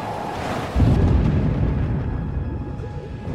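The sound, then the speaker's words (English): A deep, booming rumble like thunder rolls in over a steady roar of crashing waves and wind, loud and sustained throughout with no voices. A thunderstorm rains into an empty stretch of open sea, with thirty-foot waves smashing into each other and shrieking winds. “the empty stretch of sea seemed desolate, despite the cacophony of the thunderstorm that rained into the ocean.”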